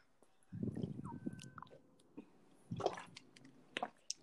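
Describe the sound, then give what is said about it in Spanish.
Wet mouth sounds of someone sipping and swallowing water, a few gulps and small squishy clicks in quiet bursts, with no talking. “Sorry, estaba tomando agua.”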